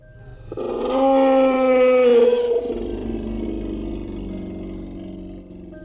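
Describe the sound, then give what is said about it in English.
A long, drawn-out animal howl, heard by three men outside their tents, seems far away at first and slowly gets closer. It swells up loud and tonal, like an angry bear, then sinks into a lower, rougher rumbling tail that carries on to the end, with no voices present. “The howling seemed far away at first, but slowly seemed to get closer.”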